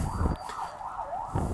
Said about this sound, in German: Entschuldigung für die laute Sirene.